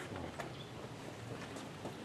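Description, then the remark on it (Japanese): A steady, soft wash of running water trickles and splashes continuously from many goldfish aquarium tanks at Kingyozaka, a shop in a narrow alley on a slope, with a few faint clinks and drips over it and no voices. “え水の音が聞こえるなんだろうあ金魚の水槽いっぱいあるなんだここまるで金魚の釣り堀じゃないですかすごいいっぱい水槽の中に金魚がいますね”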